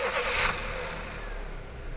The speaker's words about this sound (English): turn the keys, and the ignition coughs as it tries to brush off the frost forming on it.